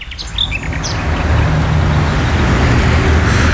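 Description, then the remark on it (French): A car approaches on a road, its rushing tire-and-engine noise swelling and holding loud, with a few bird chirps at the start before the traffic drowns them. “Là, tu veux dire euh, à côté de la route”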